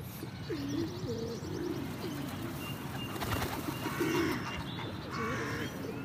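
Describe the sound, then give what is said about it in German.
Pigeons coo in low, rolling bursts, one run early and another later, over a steady outdoor background with faint higher bird chirps. “Ein paar Tauben sind heute auch noch dabei.”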